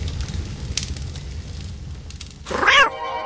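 A cat lets out one loud, drawn-out meow near the end, rising and then falling in pitch, over a steady low rumbling background with no one talking.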